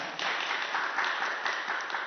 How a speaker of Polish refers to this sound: Wszystkim panelistom i współautorom publikacji należą się brawa, więc po każdej osobie będę prosił o brawa.